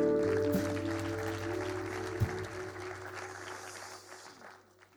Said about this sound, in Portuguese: Vamos dar uma salva de palmas à nossa banda.